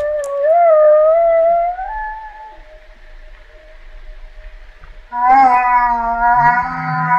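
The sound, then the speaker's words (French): Humpback whale calls: a long, wavering tonal moan trails into a faint sustained note, then a second loud, rich call answers with deeper grunting undertones. No talking. “La réponse de la baleine à bosse”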